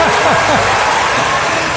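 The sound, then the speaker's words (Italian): A short burst of steady, dense applause from a crowd, loud and continuous, with a few rising voiced whoops or cheers in the opening moments, applauding the Bed and Breakfast Hotel Roma Tuscolana. “che merita un applauso, ecco.”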